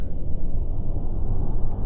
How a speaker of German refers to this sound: So, wir starten die Triebwerke, Steuerung, äh, nee, äh, Page Down und Page Up erst einmal. Und wie wir hören